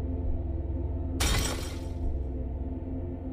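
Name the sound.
window glass shattering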